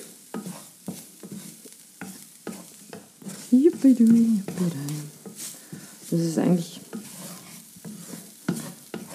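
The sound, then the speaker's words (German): Flour sprinkled over mushrooms and onion being stirred and briefly fried in a pan, with a steady scraping rhythm and a soft frying hiss throughout; a voice speaks briefly midway. “Kurz das Mehl ein bisschen anbraten.”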